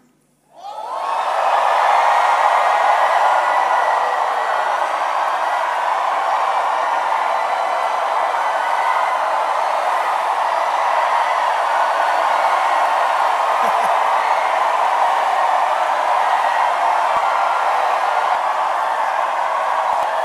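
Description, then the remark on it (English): A large audience screams and shouts all at once at a preacher's call during a sermon, erupting almost immediately into a loud, sustained roar that holds steady without letup for about twenty seconds. “Somebody say, I'm delivered from my enemies and all that hate me. Scream.”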